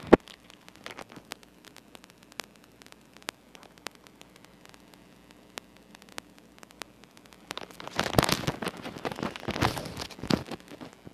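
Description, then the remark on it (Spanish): A mobile phone being handled and repositioned: scattered soft clicks and taps over faint static, then a louder burst of rubbing and scraping toward the end. No one speaks. “A ver, permítame, Déjenme acomodar el celular.”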